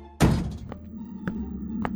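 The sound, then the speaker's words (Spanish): A house door is shut by the homeowner with a solid thud, followed by a few faint clicks and taps as it settles against a low background hum. “La dueña de casa se queda observando si alguien la acompaña y luego cierra la puerta.”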